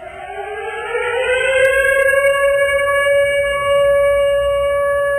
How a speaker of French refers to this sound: j'ai envie qu'on fasse jouer la, la sirène du couvre-feu, une petite sirène de guerre